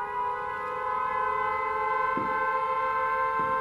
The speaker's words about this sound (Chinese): 您听，警报解除了。